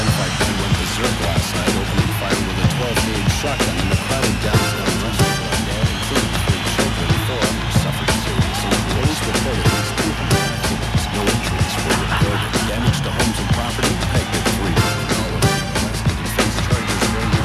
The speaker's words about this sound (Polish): Nie ma to jak w radiu włączyć radio. To oczywiście radio z Grand Theft Auto. E, polecam bardzo gorąco. Może macie na swojej półce akurat e, GTA 1 na PlayStation 1. Wkładajcie do odtwarzaczy CD i słuchajcie tej muzyki.